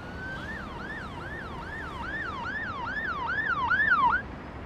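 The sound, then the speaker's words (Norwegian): An ambulance siren wails in a rapid rising-and-falling yelp, growing louder as it approaches, then cuts off abruptly near the end over steady background noise. “Ja, en dag på jobben hos en eh, ambulansesjåfør.”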